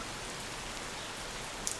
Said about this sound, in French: C'est ce petit fond là sonore que vous entendez. On entend quand même toujours quelques oiseaux. Mais on entend la pluie, peut-être sera-t-elle plus forte tout à l'heure.